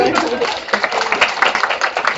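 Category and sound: crowd, audience applause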